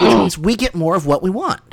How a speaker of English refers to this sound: that may have been me clearing my throat